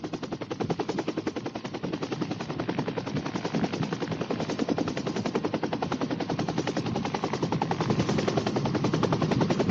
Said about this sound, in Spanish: en helicópteros de Codesur. Realiza un perfecto aterrizaje y podemos así descender con nuestro equipo ligero